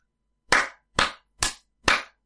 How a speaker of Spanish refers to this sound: Me dos aplausos ahora. Creo que eso servirá.